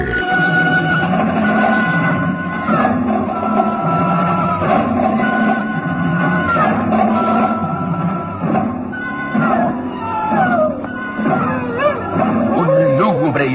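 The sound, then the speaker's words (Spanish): Long, wavering howls rise and fall, seeming to come from far off, blending with a steady rushing wind that keeps going for the whole stretch. “lejano aullido se confunde con el ulular del viento”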